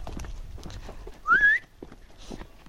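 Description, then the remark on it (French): Hooves clip-clop in an irregular, steady patter as a horse moves, with a short, bright whistle rising briefly over the footfalls partway through. “Bon, je dois trouver le cheval.”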